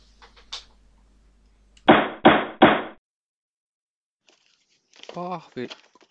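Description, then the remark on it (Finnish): Board game boxes being packed into a larger box, with card games fitted into a corner and the box then closing: a few soft rustles, then three quick cardboard thumps in a row, followed by a brief voice speaking. “Korttipelit mahtuu tuohon nurkkaan. Laatikkokin menee vielä kiinni.”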